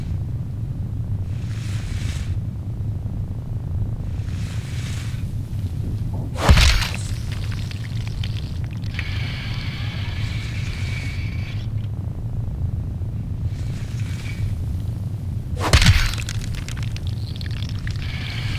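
Water spills and splashes down in two sharp, loud rushes several seconds apart, with fainter trickling between them over a steady low rumble; no one speaks. The water falls from one leg of a giant spider in a video game.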